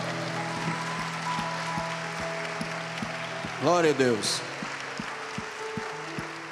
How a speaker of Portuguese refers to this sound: E se você crê, você puxa aí do seu coração e do seu diafragma, diga amém, amém e amém. E um lindo aplauso.